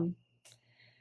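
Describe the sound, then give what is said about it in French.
Cicadas sing outside in the jungle of Costa Rica as a faint, steady, high-pitched drone that holds for the whole second, with a short low thump at the start and a brief hiss midway. “Je ne sais pas si vous entendez en background les cigales qui chantent dehors.”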